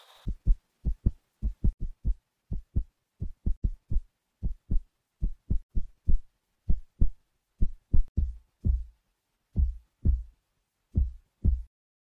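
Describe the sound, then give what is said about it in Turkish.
A steady heartbeat thumps alone in paired lub-dub beats, low and muffled, repeating evenly for about a dozen seconds with no voices. “Çünkü eğer gerçekten kalbin temizse bu kalpte bir güven sorunu olduğunu duyacaksın.”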